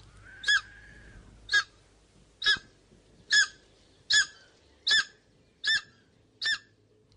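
A takahe, one of New Zealand's rarest birds, calls eight times in a steady rhythm, each note a loud, nasal, honk-like hoot evenly spaced about a second apart, with no talking.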